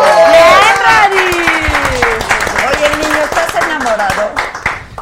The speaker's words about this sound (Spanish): ¡Aplausos!